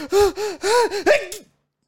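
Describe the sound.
A voice imitates how a family member sneezes, mimicking the buildup with a series of four or five drawn-out, breathy gasps in a steady rhythm, ending in a short, sharp burst, fairly loud.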